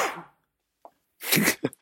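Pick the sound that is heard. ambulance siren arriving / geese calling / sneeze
sneeze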